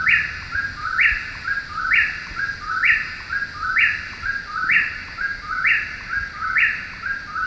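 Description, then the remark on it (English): A whippoorwill calls over and over, as heard in the video game Dragon Age: Inquisition, in a steady, rapid rhythm, its three-note whistled phrase repeating about once a second, clear, with no voices. “And for me, the most recent example I can think of is Dragon Age in- Inquisition, where I'm, I'm pretty sure they had a whippoorwill in oh, there, sure. which is, it, which is, kind of a, a tiny bit of an annoying bird call in the first place.”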